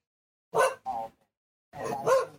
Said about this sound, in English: That's not him though. That's not. That's not, not a Ray bark.